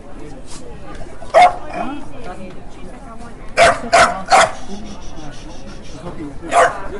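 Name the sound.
small dog yapping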